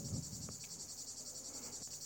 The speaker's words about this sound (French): Et au fait, toi qui dis bien aimer le chant des cigales, on m'a aussi soufflé que dans tout le pays, cet automne et cet hiver, elles ne s'arrêteront pas de chanter.